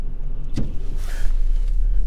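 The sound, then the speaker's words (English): Steady low engine rumble fills a car's interior, with a brief thump or click near the start and a faint mechanical whir, as if a window motor briefly runs. No one speaks. “this is you know another talks on the car.”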